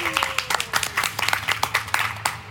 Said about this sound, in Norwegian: Og du må jo også få en liten applaus, for i 2021 så vant du UiOs utdanningspris. Gratulerer.